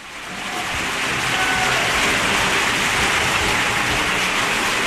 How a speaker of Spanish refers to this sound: Este aplauso para ti.